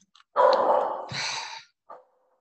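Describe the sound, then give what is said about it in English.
A dog lets out one loud, drawn-out bark, followed a moment later by a short, quieter yip, with no one talking. “Sorry about my dog.”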